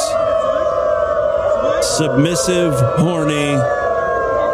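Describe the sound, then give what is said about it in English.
A crowd of hundreds of people howls together like dogs, overlapping wavering wails rising and falling over a constant dense roar of voices, with a few shouted words cutting through. “That's the sound of hundreds of human dogs.”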